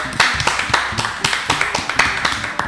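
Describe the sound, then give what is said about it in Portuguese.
Hands clapping in a steady, even rhythm, about four sharp claps a second for under three seconds, with no voices over them. “Uma salva de palmas, gurizada.”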